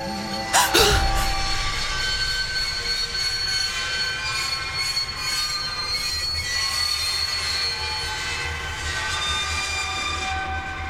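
Train wheels screech against the rails in a sustained, high-pitched metallic squeal, with a sharp burst near the start and a low rumble of the moving carriages underneath.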